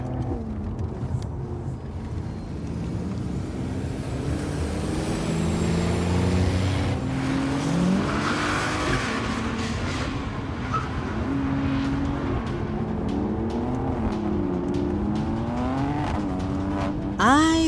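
Heavy engines of trucks mounted with machine guns roar and rev loudly throughout, their pitch climbing and dropping as the vehicles accelerate in a fast chase, with a brief tire squeal mixed into the steady mechanical din.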